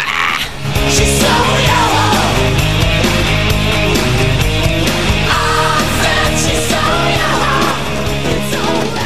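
A loud, dense hard rock track from a band's debut album, with heavy distorted guitars and pounding drums, topped by a shrill, high-pitched male vocal wailing and straining over the band throughout.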